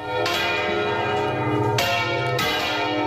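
Church bells ring loudly by hand, with three distinct strikes about a second apart, each leaving a rich, sustained ringing tone that overlaps the next.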